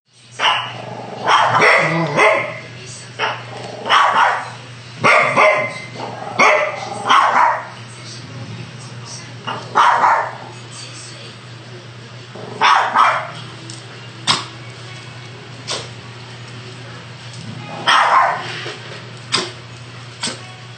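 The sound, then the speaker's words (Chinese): Two small dogs kept by one family, a dachshund and a chihuahua, trade sharp, high-pitched barks and yips back and forth in irregular bursts, with a low steady hum underneath throughout. “好，来跟大家解释一下，这是一只腊肠跟一只吉娃娃的对话。”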